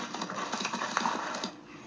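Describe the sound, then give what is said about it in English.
Rapid, rhythmic hoofbeats of a horse galloping, a quick run of thudding clip-clops, fading out toward the end with no talking. “Now, the way that horse is galloping, yup, I'd have ran past the horse.”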